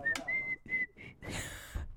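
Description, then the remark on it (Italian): Someone whistles a few short, high, wavering notes in quick succession, fairly clear, followed by a breathy, hissing rush of air. “Mamma mia, Ma, come, ma in quale quali brut- insegnano a fischiare?”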